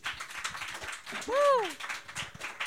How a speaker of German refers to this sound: Ja, dafür auch nochmal gerne einen Applaus. Dankeschön.